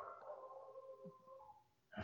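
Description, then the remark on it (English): A person's own dogs, going wild with excitement, heard faintly: a drawn-out whining, howl-like tone that fades, then one sharp bark-like burst right at the end. No one speaks. “My dogs are going nuts.”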